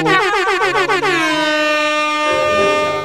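A loud celebratory air horn blares in a rapid string of short blasts, then holds one long, steady, brassy note. No one speaks over it.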